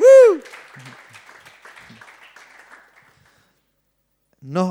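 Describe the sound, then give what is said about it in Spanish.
A church audience applauds the Lord in a dense, crackling burst that fades over about three seconds, starting right after a loud shouted voice, with another voice calling out at the end. “Dale un aplauso al Señor.”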